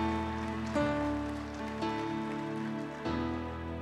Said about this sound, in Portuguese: Aplauda o Senhor, dê um brado a Ele neste lugar. Oh! Aplauda, aplauda.